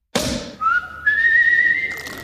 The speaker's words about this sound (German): also Ihr Handy klingelt gerade. Mit, mit welchem Sound?